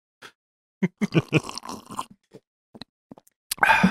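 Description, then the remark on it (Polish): A man drinks water: a run of wet gulping and swallowing sounds, then a few isolated soft clicks, ending with a louder, noisier gulp. No one speaks. “Ja wam powiem, że on naprawdę teraz pił, żeby sobie nikt niczego głupiego nie pomyślał.”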